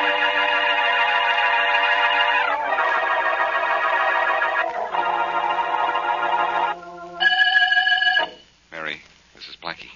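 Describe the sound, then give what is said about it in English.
A telephone in a hotel room rings loudly and steadily for several seconds in long sustained bursts, then stops, followed by a few brief, softer sounds near the end. “In fact, I'm still here, Why? waiting for a phone call.”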